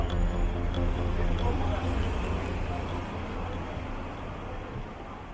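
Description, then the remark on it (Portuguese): A busy city street in Hong Kong hums steadily, with a low rumble of passing cars beneath a dense wash of indistinct crowd murmur. The sound stays continuous, easing slightly toward the end. “Se não são os cheiros, são os sons em trânsito das pessoas e dos carros.”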